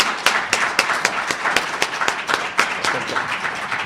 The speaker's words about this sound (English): Thank you. Let's give Professor another great round of applause.